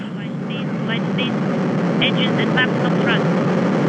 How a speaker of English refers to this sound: Auto sequence initiated less than 15 seconds. The engine's igniting. Ramping up.